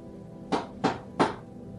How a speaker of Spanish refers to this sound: Pero alguien tocó la puerta por fuera. Había alguien ahí, justo afuera de mi cuarto. volvieron a tocar.